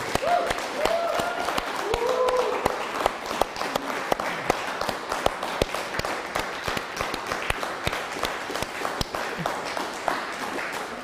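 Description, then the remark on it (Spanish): Sustained applause from a gathered audience, physically present at the reopening of the Keilah after six months, dense overlapping claps running steadily for the whole stretch, with a few brief voices and cheers poking through early on. “Dele un fuerte aplauso a todos los hermanos que están aquí presentes físicamente.”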